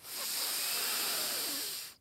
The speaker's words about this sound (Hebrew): ופעם אחרונה, מוציאות את הכל ולוקחות נשימה אחת עמוקה